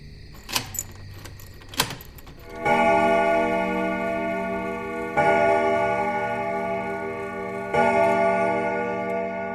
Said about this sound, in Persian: چه عجیب خیلی وقت بود صدای دینگ دینگو از بیرون خونه نشنیده بودم اصلا خیلی وقت بود همچین صدایی نمی اومد